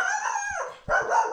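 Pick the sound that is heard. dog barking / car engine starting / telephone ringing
dog barking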